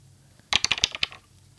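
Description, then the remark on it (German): A quick burst of two dice from a dice app rattling and clattering, about eight sharp clicky impacts over half a second, alone with a faint background hum. “Okay, und jetzt kann ich nämlich auch meine Würfel-App dazu holen. Mhm. Und ich würfel einfach mal.”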